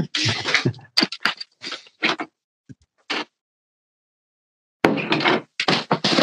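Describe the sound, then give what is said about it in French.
Irregular footsteps and shuffling bursts, then a pause and more clattering handling noise, like a door being opened and moved as someone lets a cat out, with no one talking. “Ah, excusez-moi, je dois juste faire sortir un chat, je suis désolée.”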